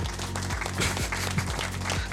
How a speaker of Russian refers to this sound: Слышите аплодисменты, да, на фоне?